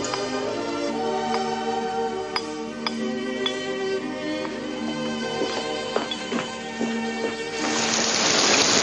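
Rain patters steadily on a camping tent, with scattered sharp drips and drops tapping irregularly, then swells into a heavier, louder downpour hiss in the final seconds. No one speaks.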